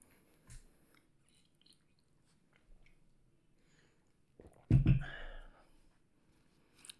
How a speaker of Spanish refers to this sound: Disculpame, solo tomar un poco más de agua.